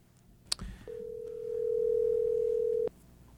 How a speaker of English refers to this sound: I think you're going to have to dial and smile. All right, man. Let's let's give him a call.